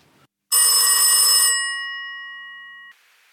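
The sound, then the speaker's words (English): A single loud ring of an old-fashioned telephone bell, a second of rattling metallic clatter followed by a bright tone that slowly fades away, with no talking. “Just a few days after receiving the tapes, I got a phone call.”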